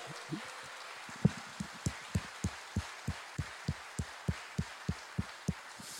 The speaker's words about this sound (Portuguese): Vamos aplaudir o Espírito Santo nesta noite.